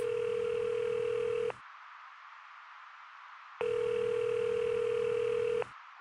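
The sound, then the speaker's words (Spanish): A telephone line tone of a recorded threatening phone call to a journalist sounds in two long, steady beeps, each about two seconds, separated by a stretch of faint line hiss. The tone is loud, with no voices. “Llamadas como las que van a escuchar a continuación.”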